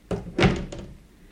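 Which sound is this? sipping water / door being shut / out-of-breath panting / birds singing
door being shut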